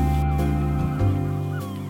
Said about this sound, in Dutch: Krijzende meeuwen.